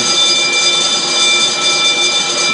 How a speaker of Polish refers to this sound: przepraszam, tutaj ktoś mi dzwoni na alarm.